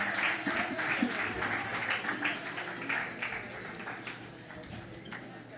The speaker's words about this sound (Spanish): Excelente. Un aplauso para ellos dos.